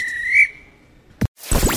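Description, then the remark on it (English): A referee's whistle sounds one sharp, sustained, loud blast at full time, then fades; a brief thump and a burst of rushing noise follow. “If this were a real bit of extra time, this is when the ref blew the whistle because it's finished.”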